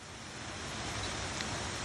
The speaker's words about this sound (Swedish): Det hade regnat igår jättemycket så att jag hade stigen hade svämmat över så vi fick ta oss barfota och gå nästan hela vägen för att komma fram till vattenfallet. Men otroligt mäktigt. Så här lät det där.